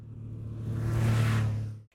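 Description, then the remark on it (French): A powerful car engine revs, its deep throaty rumble swelling to a loud peak before cutting off abruptly. No voices. “Tu sais, celui qui a une superbe voiture”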